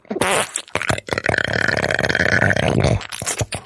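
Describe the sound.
A guest makes a loud, sustained fart-like noise with their mouth as a comedy demonstration, a long buzzing raspberry lasting a couple of seconds after a brief intake.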